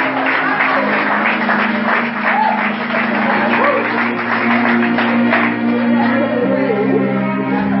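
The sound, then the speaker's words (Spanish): An audience at a night church service applauds God in a dense, steady wash of clapping for about eight seconds, with scattered voices and a sustained low musical tone beneath. “Si dan un aplauso a tu Dios en esta noche.”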